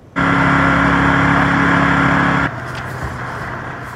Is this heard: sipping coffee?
no